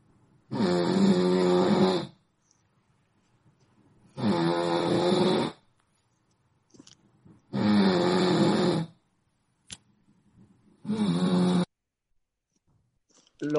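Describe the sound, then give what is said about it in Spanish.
Loud snoring from a sleeping person: four long, harsh rasping snores at a steady rhythm, each lasting over a second, with quiet breathing pauses in between. “Es el ronquido típico que inicia, si se dan cuenta, eh, es intenso, es continuo y va aumentando eh, en intensidad.”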